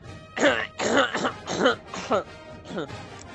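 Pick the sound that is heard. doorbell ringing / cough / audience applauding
cough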